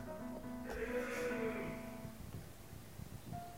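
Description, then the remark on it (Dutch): A single drawn-out vocal cry, a voice imitating a crocodile roar, rising and wavering for about two seconds with a bleating, nasal quality, then fading into quiet. “En die krokodil brult opnieuw.”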